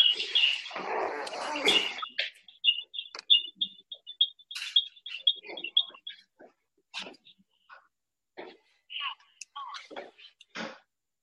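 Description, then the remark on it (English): A thin, high-pitched feedback squeal whines steadily for about six seconds, wavering and pulsing, surrounded by scattered clicks, rustles and short bursts of noise that continue after the tone cuts out. “We got technical difficulties going over there. Yes, sir. Yes, sir. thinking this should be better as far as the, the feedback.”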